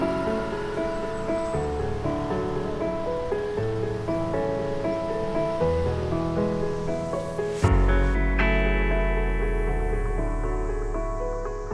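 An instrumental song intro with layered sustained chords and a washy texture, swelling into a rising sweep before the full band drops in with deep bass and bright synths. No vocals yet.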